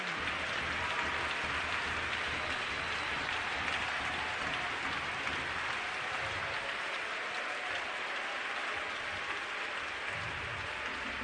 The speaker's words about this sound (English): His name is. Clap your hands unto that name.